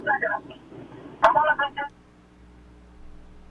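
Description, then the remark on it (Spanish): Tinny, warbling feedback from a caller's phone line on a call-in show squeals in choppy bursts for about two seconds, broken by a sharp click, then fades to a low, steady hum. “Vamos a la próxima llamada bajo el teléfono, te estoy, estoy escuchando el feedback.”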